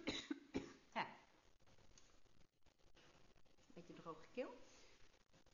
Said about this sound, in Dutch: Sorry, ik ga even hoesten.